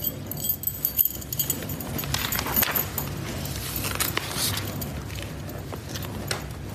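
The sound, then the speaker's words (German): Keys to a cabin jangle and clink in a loose, irregular rattle for several seconds as they are handed over, moderately loud, with no one speaking. “Hier ist die Schlüssel für eure Hütte.”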